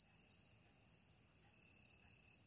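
Crickets trill steadily in a high, continuous chirp that pulses in soft waves, fairly quiet, with no voices or other sounds.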